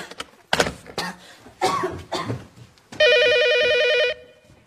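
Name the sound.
telephone ringing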